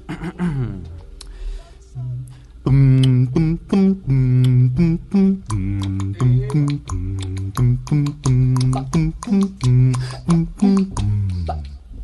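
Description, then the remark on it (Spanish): A deep male voice, the baritone and bass singer of a vocal group, sings a walking bass line with wordless syllables, a steady run of short plucked-sounding notes in even rhythm, fairly loud, imitating a double bass. “yo en … hago la voz del barítono y el bajo también”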